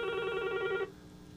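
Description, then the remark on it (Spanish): A telephone rings once with a steady electronic trill, bright, lasting under a second before cutting off into quiet background hum. “no le coja la llamada, Alex. La Junta llamando para darte instrucciones. Teléfono, el teléfono.”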